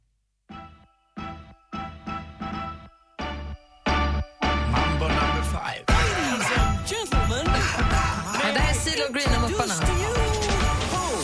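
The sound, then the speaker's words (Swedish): A Christmas song plays, opening with a run of loud, punchy chord stabs in a stop-start rhythm before bursting into full, bright music with a gliding sung melody. “som har gjort en jullåt och den låter så här.”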